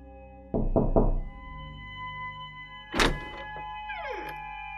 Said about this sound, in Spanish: Estábamos en nuestras clases de práctica para la licenciatura de enfermería, cuando de pronto tocaron a la puerta del aula.